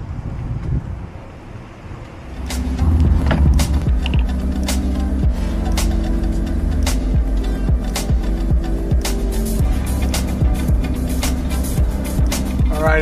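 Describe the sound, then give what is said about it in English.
Outdoor wind rumble gives way to a car engine turning over and settling into a steady drone, with sharp repeated clicks and knocks as the car gets moving to drive further down the highway. “It was a little too expensive, so I think I'm going to get back in the car and drive a little further down the highway to see if I can get anything a little cheaper.”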